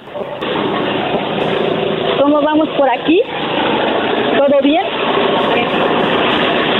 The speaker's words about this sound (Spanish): Te voy a preguntar cómo va la picadora que fui a soldar. Sí. Porque con ella se está picando sacate ahorita. Están trabajando.